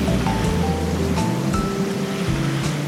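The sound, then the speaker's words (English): A steady roar of wind over open, dark water with churning waves, a deep rumble underneath and faint whistling tones drifting through; no voices. “Oh, it's just endless glass in every direction. Dark, dark water everywhere.”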